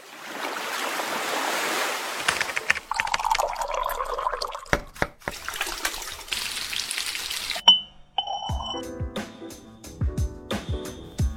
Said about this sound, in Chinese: 这个摇冰的声音很像我们那个片头的白噪音哎。